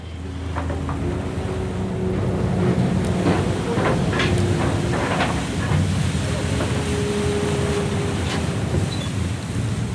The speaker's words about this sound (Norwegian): Motor Abstellen står det. Vi er eh, godt om bord på en ferje her nå